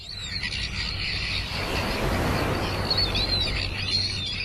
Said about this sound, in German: Wochenlang hat am Clifton Beach in Kapstadt gähnende Leere geherrscht. Noch bis zum Anfang der Woche waren die einzigen Geräusche am Strand die der Möwen und der Wellen.